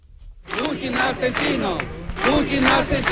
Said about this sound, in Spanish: Esta ha sido una de las consignas que se han podido oír en Córdoba en una concentración ciudadana para pedir el fin de la invasión rusa de Ucrania.